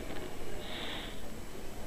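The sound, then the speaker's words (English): A person imitates with the voice a hiss they heard, likened to a Fourth of July rocket, pushing out a single breathy, drawn-out hiss lasting under a second, moderately loud, with no speech around it. “A hissing sound like this.”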